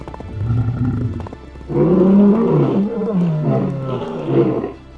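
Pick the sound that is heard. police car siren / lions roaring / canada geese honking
lions roaring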